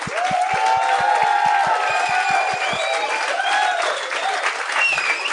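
A crowd applauds steadily with scattered cheers and whistles rising over the clapping, while a low rhythmic thumping pulses underneath for the first few seconds before fading out.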